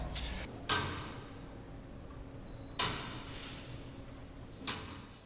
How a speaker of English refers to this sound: We're at the, at the clock mechanism room, and this is normally where I stop and show people the clock.